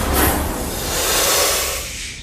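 A cobra hanging in a canistel (egg fruit) tree beside a shrine hisses down at a ritual master: a steady, breathy rush of noise that swells briefly and then tapers off over about two seconds, with no voices.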